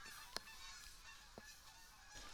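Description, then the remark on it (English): Geese flying overhead in a V formation honk in a few sharp, scattered calls, one louder than the rest, over a steady airy outdoor background; no one speaks. “Because I promised it at the beginning and we haven't gotten one yet, but we got the flying V of geese's.”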